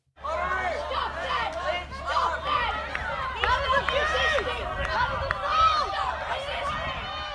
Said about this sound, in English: That is the sound of Djab Wurrung people, elders, and supporters being removed from the camp on Tuesday morning. Police and machinery arrived on site shortly after the highway was closed at 8am.